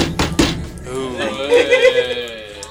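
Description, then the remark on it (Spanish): A few hard, heavy bangs on a table land in quick succession, then give way to voices talking and laughing. “Vas a romper la mesa.”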